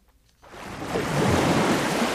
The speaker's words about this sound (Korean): 에메랄드빛 바닷가에서 하얗게 부서지는 파도를 따라 그렇게 바닷가를 걸어가고 있는데 글쎄 저기 파도 끝에 뭔가 움직이는 게 보이는 거예요.